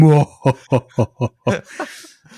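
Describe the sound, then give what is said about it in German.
A voice imitates a sinister, cackling laugh from hell, out of the fire: a drawn-out opening followed by five or six rhythmic, evenly spaced "ha" bursts that trail off into a breathy fade, fairly loud. “und dann so ein ganz fieses Lachen aus der Hölle raus, über, aus dem Feuer, aus diesem ja, kannst du es kurz nachmachen?”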